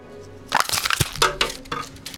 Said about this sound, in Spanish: Ella toma un sorbo largo y tira la botella vacía a una caneca llena de papeles y vasos desechables.